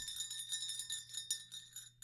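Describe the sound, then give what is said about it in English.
A large bell rings with a steady, shimmering hum of overlapping tones, renewed by several soft strikes. It is fairly quiet, with no voices. “At 29,029 feet, if you rang this singular bell,”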